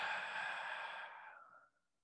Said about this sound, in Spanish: Toma tres respiraciones profundas, por favor. Una. Ah.